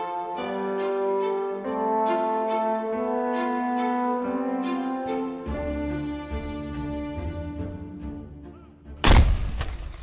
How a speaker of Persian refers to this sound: حدود ساعت ده صبح صدای انفجار گلوله توپی در فضا تنین انداز شد و این نشانه رسیدن شاه به دروازه شهر تاریخی قزوین بود